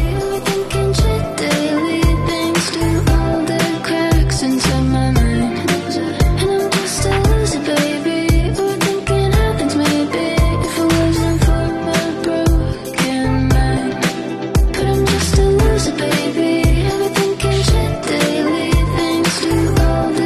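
A polished pop song plays loud and continuously for about twenty seconds, with steady drum hits, a dense full-band mix and sustained melodic layers, and no talking over it.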